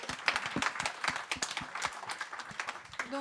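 A crowd applauds steadily, with dense overlapping hand claps forming a bright, crackling wash of sound that holds at a fairly even level throughout, with no voices.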